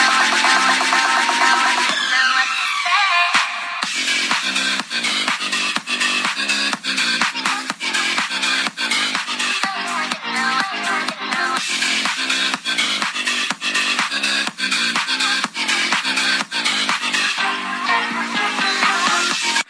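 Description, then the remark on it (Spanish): A loud house track made in a studio, its melody built from a downloaded steam whistle sample, with house drums, a riser, small effects and bass. It opens briefly on the tonal lead before steady, punchy drum hits kick in and drive a dense, continuous groove. “Utilicé este sonido para hacer una melodía muy fresca, unos drums de house, un riser camotero efectitos y por último el bajo pedorro.”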